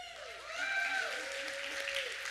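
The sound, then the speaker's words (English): An audience claps and cheers steadily for a couple of seconds, a dense patter of hands mixed with a few rising whoops and shouts, fairly loud, cheering on contestants before a timed game starts. “Okay, you want to cheer them on a little bit before they start?”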